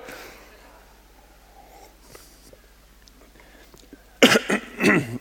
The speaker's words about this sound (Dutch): Ik moet even, even, even goed hoesten hoor. ja. Ik denk dat die kikker nou weg is.